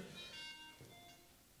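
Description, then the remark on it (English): A phone gives off a short run of electronic beeps and tones, moderately quiet, with faint room noise underneath and no speech. “I've had a run with phones, haven't I, over the past couple of weeks?”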